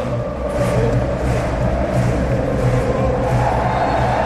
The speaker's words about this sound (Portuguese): E a torcida do Palmeiras canta e canta bem aqui no estádio do Allianz Parque. Faz muita festa.